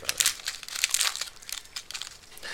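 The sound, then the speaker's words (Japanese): Crinkling plastic packets of dried toppings and powdered soup from a cup of noodles, a dense run of sharp, bright rustles and crackles lasting a couple of seconds with no talking. “なんか袋が入ってるぞこれ火薬と粉末スープが入ってるね両方とも先に入れるやつだね”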